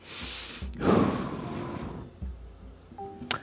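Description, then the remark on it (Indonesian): One long, deep breath is drawn in as a relaxation technique to calm anxiety, a rushing airy inhale of about a second, then quiet with a faint click at the end. No one speaks. “Misalnya menarik nafas yang panjang.”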